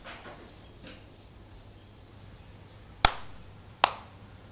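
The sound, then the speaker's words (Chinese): Two sharp hand claps, spaced under a second apart, ring out crisply over a quiet, faintly hissing background with no talking. They are the two claps of the two-bows, two-claps, one-bow prayer ritual at a Shinto shrine, recorded on site. “首先呢，你会鞠躬两次，然后拍手两次，拍出声音。”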